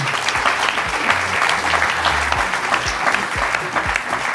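audience applause

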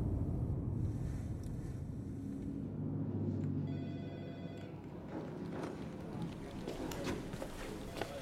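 telephone ringing

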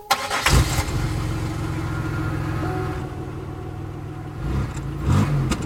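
car engine starting

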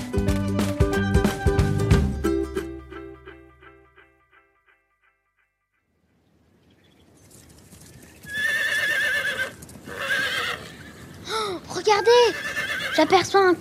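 horse galloping and neighing

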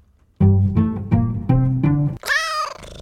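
sneeze

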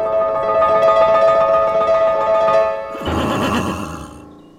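horse neighing

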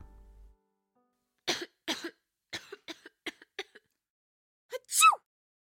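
child coughing

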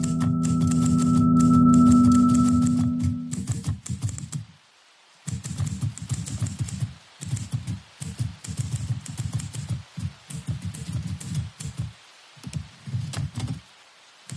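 typewriter keys typing

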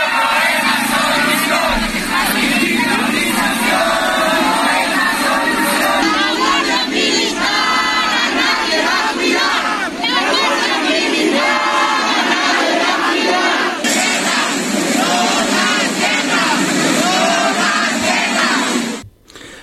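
protest crowd chanting slogans

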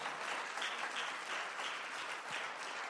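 audience applause

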